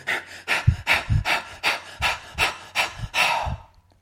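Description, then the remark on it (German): A person breathes very fast and rhythmically, about eight quick, forceful breaths in steady succession, fairly loud, with no talking, demonstrating a rapid breathing technique used to raise intensity and energy. “Du kannst zum Beispiel anfangen, sehr schnell zu atmen.”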